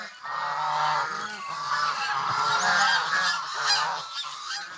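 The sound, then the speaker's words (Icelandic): A flock of geese honking continuously, many loud, overlapping nasal calls layered over one another without a break, with no voices present. “Og andfuglar, þar að segja endur, gæsir, svanir og svo leiðis virðast vera helsta uppspretta fugglaflensu veira í náttúrunni.”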